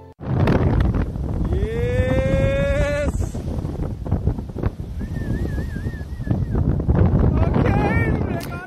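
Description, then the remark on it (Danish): Steady roaring wind and surf noise fill the scene, broken by a few drawn-out, wavering shouts or whoops from surfers out on the water off Ballehage beach, at the southern end of Aarhus. “Ja, det er lyden af rigtig levende surfer.”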